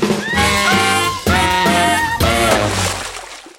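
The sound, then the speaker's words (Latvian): A loud electronic buzzer-like tone, a quiz signal for a wrong answer, sounds in three bursts, the first two quickly repeated and the third longer, with layered harmonic pitches fading out at the end. “Jū, jū, jū, dzirdēsiet signālu, kad atbildi nepareizā.”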